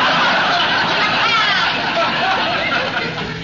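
Water at a rolling boil in a wash boiler, a loud, steady bubbling and gurgling hiss that runs unbroken for several seconds and eases off slightly toward the end.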